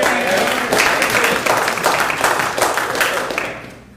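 An audience claps together in a steady burst of applause, dense and fairly loud, with faint crowd murmur mixed in before the clapping tapers off at the end.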